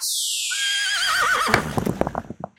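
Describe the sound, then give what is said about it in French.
A single horse gives a loud whinny that starts high and shrill, then wavers downward, trailing off into a few short snorts and breathy bursts. “Mais il reste encore les deux chevaux, preuve de sa grosse bêtise.”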